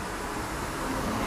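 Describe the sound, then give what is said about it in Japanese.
A steady, broad rumble of road traffic heard from a spot in the shade just after a squall has stopped, a continuous wash of car noise with no distinct single pass and no voices, the vibration of the cars dominating the air. “そして自動車の音がここに少し影に入ってるところにいるんですが今そこに空気としては自動車の振動が一番ドミナントで一番強く空気を揺らしているかもしれません”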